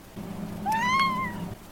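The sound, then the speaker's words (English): A single drawn-out meow from a pet cat named Kyle, rising then falling in pitch, clear over a low steady hum, with no talking. “I'm, gonna, trying it with uh, just a cat as a co-host, right, Kyle?”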